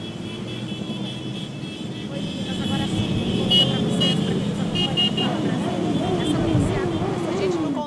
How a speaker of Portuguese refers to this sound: porque a gente ouviu lá a quantidade de motos.